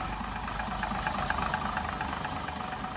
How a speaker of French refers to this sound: à comparer à un moteur diesel, qui, lui, ben, il il avait toujours le même son régulier. Très belle musique. Euh, c'était le fun d'entendre ces sons-là. On dirait qu'il y avait tendance à chanter.